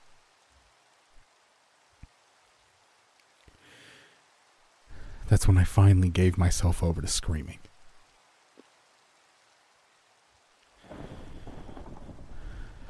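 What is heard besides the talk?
rain and thunder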